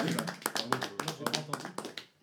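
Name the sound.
clapping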